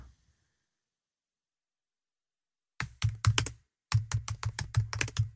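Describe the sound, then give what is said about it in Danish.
After nearly three seconds of silence, a burst of rapid, forceful keystrokes clatters on a computer keyboard as a man types angrily, pauses briefly, then resumes in a quick, uneven run of hard taps. “Nu taster Michael et eller andet.”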